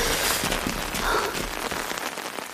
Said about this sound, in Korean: 이번에는 소나기가 아니었다. 빗줄기가 짧은 시간 동안 눈에 띄게 굵어지고 있었다.